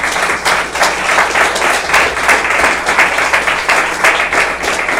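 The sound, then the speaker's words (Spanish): A church audience claps for the Lord together in a steady, rhythmic beat, loud and continuous for the whole stretch, with no voices standing out above the hand claps. “Ah, hermano, déle fuerza de palmas al Señor con todo su corazón.”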